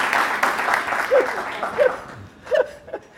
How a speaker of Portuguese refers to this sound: Pode aplaudir que eles estão entrando, eu vou anunciar.